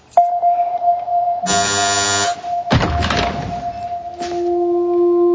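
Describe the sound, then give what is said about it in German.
A harsh, buzzing doorbell at a home's door in Tel Aviv, Israel, in an Israeli film, sounds once for almost a second, followed by a heavy thunk like a door. A steady high tone hums underneath throughout, and no one speaks. “Herr und Frau Feldmann hocken in der Küche, wo es plötzlich an der Tür läutet.”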